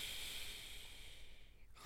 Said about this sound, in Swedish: En jägare som arbetade i skogen hör hur snarkningarna kommer från mormors hus. Och han börjar fundera på, kan mormor verkligen snarka sådär högt?